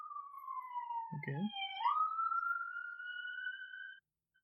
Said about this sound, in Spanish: Bueno, ya que pasó la ambulancia. Qué bueno que esto se puede este. quitar en postproducción, ¿eh? Muchas, gracias a la postproducción. Vivo cerca de una avenida, no es, no es mi culpa.